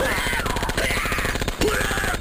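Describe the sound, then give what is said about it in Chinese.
Rapid, sustained video game gunfire as a woman in a bathroom in the game pulls out a gun: a loud, steady stream of sharp automatic shots crackling for a couple of seconds over a faint tonal hum, with no voices. “我靠，妹子，你这枪是从哪里掏出来的？”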